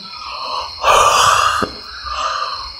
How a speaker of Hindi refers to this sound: वो मेरी आँख लग गई थी मैंने जमाई लेते हुए कहा